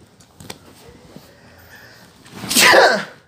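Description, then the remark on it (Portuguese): A single loud sneeze bursts out near the end after a few seconds of quiet with faint small clicks, a sharp explosive blast that fades quickly. “Espirros.”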